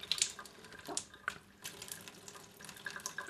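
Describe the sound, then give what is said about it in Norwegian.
Water runs and trickles steadily, with small splashes and drips, as rinse water flows in one nostril and out the other during a nasal rinse; no one speaks. “Når alt renner inn i den ene neseboret og ut av det andre.”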